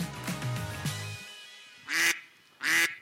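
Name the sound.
duck quacking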